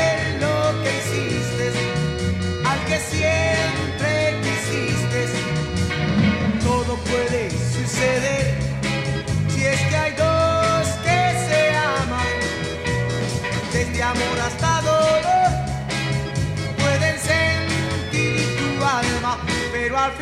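A 1960s rock song plays at steady, full volume, with driving drums, bass and guitars forming a dense band sound from start to finish with no talking over it.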